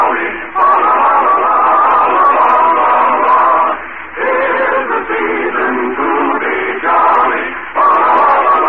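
A group of children sings a Christmas song together in steady, sustained phrases with brief pauses between lines, fairly loud and close, with no other voices talking over it.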